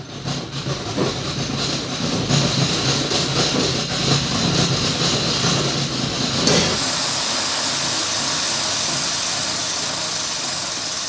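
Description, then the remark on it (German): A clock tower mechanism is wound by an electric motor, a loud, rumbling mechanical whir with rattling that runs for about seven seconds, then abruptly gives way to a steady, even hiss. “Nur, nur werden die jetzt da elektronisch aufgezogen.”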